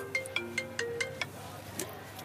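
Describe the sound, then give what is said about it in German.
A mobile phone rings with an incoming call from the speaker's younger brother, playing a quick, repeating melodic ringtone, a string of bright, evenly spaced tones over a low background hum, with no one speaking. “Das kann doch passieren in der Bar. Ja, das passiert in der Bar. Da klingelt es einfach.”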